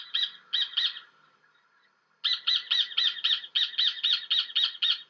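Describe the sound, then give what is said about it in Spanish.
Rufous hornero calls ring out loud: three harsh notes, a brief pause, then a fast rhythmic run of about ten sharp, repeated squawking notes. No talking. “Son pájaros de poco ruido, pero tienen un sonido peculiar. Escuchémoslos.”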